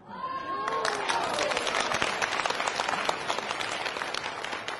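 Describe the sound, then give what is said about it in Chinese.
An audience breaks into loud, sustained applause, dense clapping that fills the whole stretch, with a few faint voices and a brief tonal whistle-like sound at the start. “凡是鼓掌的都是能当大老板。”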